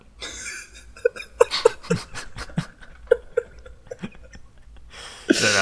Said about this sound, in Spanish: eso fue un llanto, eso fue un llanto, disculpen.